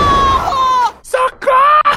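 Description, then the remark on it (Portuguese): A voice imitates a thin, high-pitched scream for help, the character Eng crying "Socorro!" after being stuck in a glue trap: one long shrill wail, followed by two or three shorter piercing cries. “Cara, o Eng ele solta um grito de socorro.”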